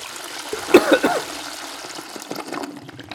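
A toilet flushes: a sudden gurgling rush of water with a few sharp splashes near the start, then a steady hissing trickle that fades as the bowl drains. No one speaks.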